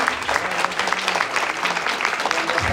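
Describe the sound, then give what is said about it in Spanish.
Steady, loud audience applause for the company's CEO at a Vida Divina network marketing event fills the whole stretch, a dense patter of many hands clapping without pause, with faint crowd noise underneath. “Un aplauso fuerte, fuerte, fuerte, fuerte”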